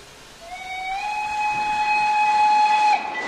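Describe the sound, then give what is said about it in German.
A steam train returning to the station, pushed backward with its last carriage first, sounds one long, steady whistle blast that slides up into pitch and holds for a couple of seconds, over a constant rushing hiss of steam. No voices. “Er kommt zurück. Wo ist die Lok?”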